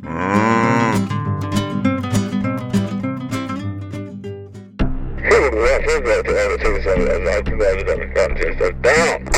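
A cow moos loudly over busy background music, the drawn-out lowing sounding prominent before the music shifts and carries on.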